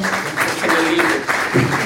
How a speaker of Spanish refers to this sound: De ahí me quedo. Un aplauso al grupo.